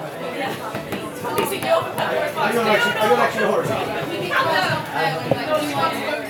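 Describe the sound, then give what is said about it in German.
Dense crowd chatter fills a busy, packed Irish pub, many overlapping voices blending into a steady, lively murmur with occasional sharp clinks and knocks cutting through. “ein ums andere Mal finde ich es großartig, die Tür zu öffnen und reinzukommen und mich von dieser warmen, gleichermaßen energiegeladenen wie auch intimen Atmosphäre eines urig-irischen Pubs umschwappen zu lassen.”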